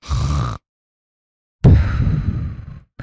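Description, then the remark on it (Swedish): A voice imitates the snoring of a bearded man sitting beside the speaker on a train: two rough, guttural snorts, the first short, then a pause, then a longer rattling one trailing off, with a brief third starting at the end. “Och sen, och sen snarkade han på det här sättet att det lät så här.”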